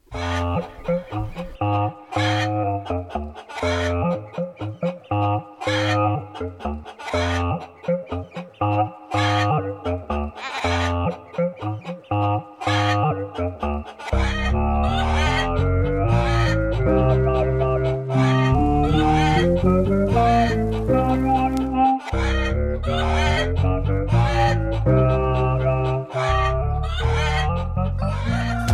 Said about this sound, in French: Sans transition, quelques notes de musique.